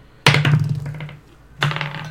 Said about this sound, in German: Ähm, ja, dann würde ich sagen, würfeln wir mal, was so heute passiert, nicht wahr? Yes. So, drei Würfel hätte ich gerne. drei 20er. Jeder von euch darf.